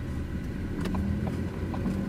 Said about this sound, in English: In the car on the way to Farma